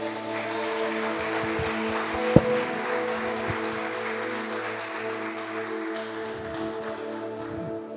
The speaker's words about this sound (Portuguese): Você pode glorificar o Senhor com suas palmas?